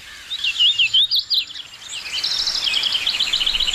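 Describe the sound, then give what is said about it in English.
A hooded warbler (Setophaga citrina) sings clear, high whistled phrases, a bright burst of slurred notes followed by a steadier run of rhythmic chirps, loud over a soft outdoor hiss. “It's today's Talking Birds featured feathered friend, Setophaga citrina, the hooded warbler.”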